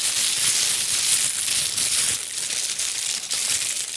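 Loud, continuous crinkling of plastic packaging as HD25 headphones are unboxed, a dense hiss of crackles with irregular louder bursts, no voices over it.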